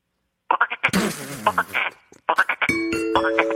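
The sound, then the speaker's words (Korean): A person mimics a frog a second time with quick, rhythmic croaking bursts in two rapid runs, loud, followed by a steady ringing chime-like tone near the end. “다시 한번 개구리 한번 들어보겠습니다.”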